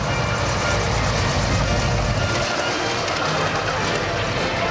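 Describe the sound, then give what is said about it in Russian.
A loud, steady engine roar from the Russky Vityaz airplane coming in to land at a St Petersburg military district review, with a heavy low rumble that drops away halfway through while the broad whooshing noise continues. “Вот в чем дело Сюда самолет летит О, как быстро приближается Идет на посадку”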